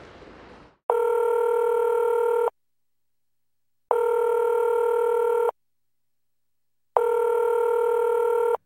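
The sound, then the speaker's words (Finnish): A phone call to a friend connecting: a brief rustle, then three steady electronic ringback tones, each lasting about a second and a half with equal silent pauses between, clear and unaccompanied by voices. “Seuraavaksi otetaan yhteys mun hyvä ystävää”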